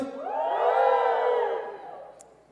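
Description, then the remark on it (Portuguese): A crowd cheers and shouts together, a bright, high-pitched swell of many voices that rises quickly, holds for about a second, then fades away. No one speaks over it. “Quem estava aqui no primeiro episódio, levanta a mão, faz um barulho, que a gente é jovem, a gente se comunica assim.”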